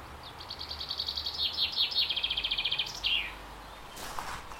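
A chaffinch sings a bright, rapid trill of repeated notes that tumbles downward in pitch and ends in a quick flourish, against a soft outdoor hiss, followed by a brief rustle.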